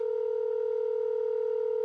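A steady electronic telephone tone hums clearly and unbroken for nearly two seconds, alone with no voices, then cuts off abruptly.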